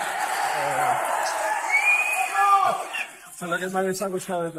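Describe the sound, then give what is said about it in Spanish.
A school audience applauds and cheers before recess, with a steady wash of clapping under excited whoops and shouts; toward the end, several voices rise into loud, sustained cheering. “Así que vamos a dar un aplauso, ¿no?”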